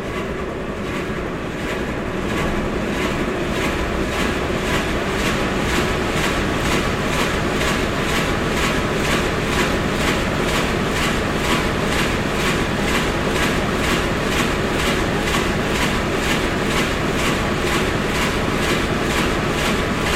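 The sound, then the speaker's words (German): A VMA 266 eight-cylinder four-stroke diesel engine, rated at 250 rpm and 1000 hp and generating power for radio operation, runs steadily: a loud, dense rumble with a fast, even pulsing throb. It swells slightly in the first couple of seconds, then holds constant with no voices. “unserem Motor handelt es sich um einen Viertakt-Dieselmotor VMA 266.”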